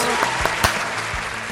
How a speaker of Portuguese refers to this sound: Aê! Uma salva de palmas.